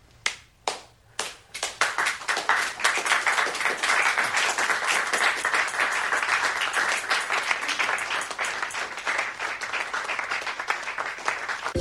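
A few separate hand claps ring out as a painting, Explosión de Dolor, is unveiled, then quickly swell into sustained applause from a crowd that continues steadily, tapering slightly toward the end. No one speaks.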